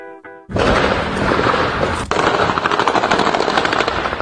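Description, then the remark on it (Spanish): Rapid bursts of automatic gunfire during a chase of armed civilians by soldiers and police in Matamoros, Tamaulipas, Mexico, crackle continuously and loudly, following a brief faint tone at the start, with dense overlapping shots and a sharp louder crack midway. “Lo que acabamos de escuchar es parte de una persecución de soldados y policías contra un grupo de civiles armados que ocurrió el fin de semana en Matamoros, en Tamaulipas.”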